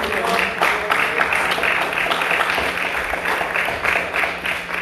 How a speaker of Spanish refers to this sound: Un aplauso aquí.